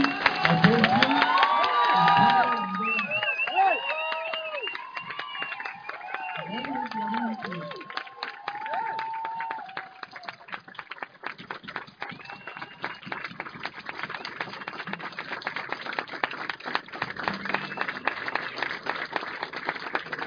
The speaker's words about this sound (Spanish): entonces, les voy a pedir si por favor se ponen de pie y me ayudan con un aplauso, con un aplauso bien fuerte a llamar a, esta, este escenario